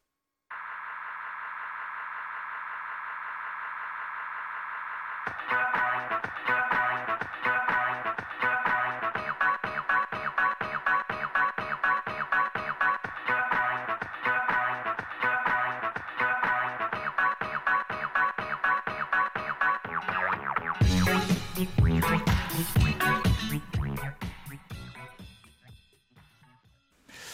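An electronic dance track, one that was used in a game league, opens on a sustained synth tone, then drops into a steady, pulsing four-on-the-floor beat with dense layered synths, swells near the end, and fades out.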